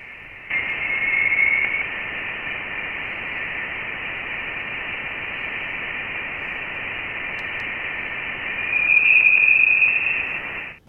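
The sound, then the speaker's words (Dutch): Voyager 1 recording of interstellar plasma waves in the heliosphere outside the solar system, picked up by its plasma wave instrument in 2012 and 2013: a steady, band-limited hiss like radio static, with thin high whistling tones, thought to come from dense gas and plasma around the probe, rising briefly early on and more strongly near the end. “dat is het eerste geluid van interstellaire plasma in de heliosfeer. Dus buiten ons zonnestelsel, opgenomen door de Voyager 1”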